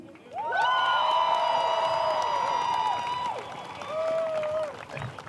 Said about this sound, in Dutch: Wil jullie alsjeblieft nog één keer een keiharde applaus geven voor mijn broeder